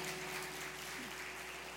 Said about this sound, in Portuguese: Passar um de palmas pro guardião da porta.